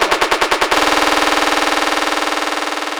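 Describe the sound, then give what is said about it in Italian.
A loud, distorted hardstyle bass kick drop: a rapid roll of heavy punchy kicks bursts into a dense, pounding kick pattern that keeps hammering at full volume, with no voices. “quando parte il basso”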